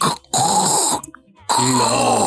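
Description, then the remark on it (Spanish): A voice imitates the house next door creaking: two long, harsh, strained groans, loud, separated by a brief pause, with no other talk around them. “Pero fuerte que se oía el crujido.”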